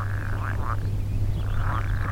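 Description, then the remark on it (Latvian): Frogs croak in an overgrown pond in a repeated chorus of short, rising calls over a steady low hum, heard from a distance, with no voices present. “Tālāk, ejot aizaugušā dīķī, jau pa gabalu dzirdamas vārdas.”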